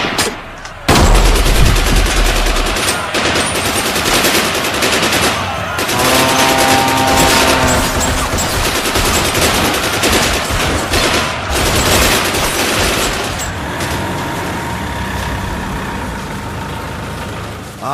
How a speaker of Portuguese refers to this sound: Mas nesse momento, subitamente, dois soldados são atingidos por tiros. E ao se virar, o viajante percebe que vem chegando um grupo de saqueadores.